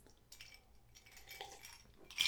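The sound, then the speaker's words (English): Glasses of Armagnac clink together in a toast, a bright, ringing tap near the end after a stretch of faint clattering. No one speaks. “Let's toast this classic. Right. Cheers.”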